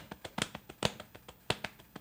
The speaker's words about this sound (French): qui rythmait quelque chose sur son torse Oui, c'est ça. Pour illustrer un propos.